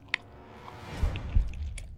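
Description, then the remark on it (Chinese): Wet, crunchy chewing with sharp cracking bites, a few crisp snaps scattered over a low, squishy grinding of jaws as someone gnaws on bone in a crematorium. No talking. “嘴里不断的传出嚼骨头的嘎嘣嘎嘣的声音”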